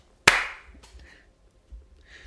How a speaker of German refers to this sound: Wollen wir nicht mal klatschen oder so am Anfang, damit wir synchron sind?